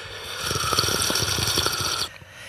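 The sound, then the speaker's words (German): A person slurps loudly into a microphone for about two seconds, an airy, wet sucking sound drawn in continuously before cutting off abruptly, with no talking over it. “das ist fast so ein Werbungsschlürfen.”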